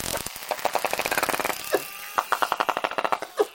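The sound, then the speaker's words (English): A pod of bottlenose dolphins in Milford Sound, New Zealand, makes echolocation clicks underwater to find prey and communicate: rapid, buzzing trains of sharp clicks in quick bursts, broken by a couple of short rising squeaks, with no voices present. Recorded by Dr. Oliver Boisseau. “They use a series of clicks for echolocation to find prey and communicate.”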